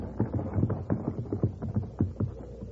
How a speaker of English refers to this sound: Hey, wait. Listen. That's a team and wagon. And it's heading right down the road where the horses are hidden.